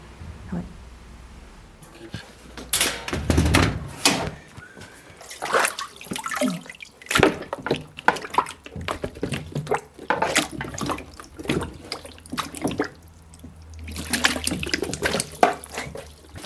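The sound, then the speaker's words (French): Water splashes and drips in a papermaking vat, where the water binds plant cellulose fibres together, with irregular sloshing bursts and trickles, some louder surges of pouring water between quieter dripping stretches. “En fait, l'eau, c'est vraiment le médium, c'est ça qui fait que les fibres, elles se mettent ensemble.”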